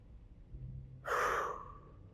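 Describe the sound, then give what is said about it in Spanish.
A single deep, airy breath, rising abruptly and trailing off over about a second, preceded by a faint low rumble and no talking. “Estoy respirando profundo relaja los músculos, relaja tu cuello.”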